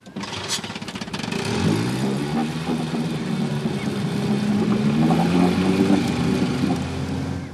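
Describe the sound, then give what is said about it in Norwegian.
A boat's small motor sputters into life after a brief rattle, then runs steadily with a loud, droning hum that rises and falls slightly in pitch. “Det kan være enkelt å få i gang motoren, men å styre båten trygt gjennom norske farvann er verre.”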